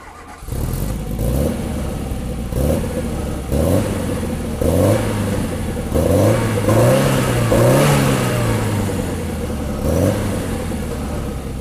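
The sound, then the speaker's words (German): A Peugeot 205 Turbo 16 Group B rally car engine revs hard through repeated rising and falling pitch sweeps, loud, with sharp throttle blips between pulls and no talking. “Peugeot 205 Turbo 16”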